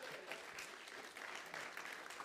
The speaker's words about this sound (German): Sehr gut gemacht, nochmal einen fetten Applaus.